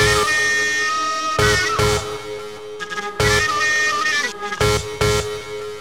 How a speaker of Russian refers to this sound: А вот эту свистульку слышите?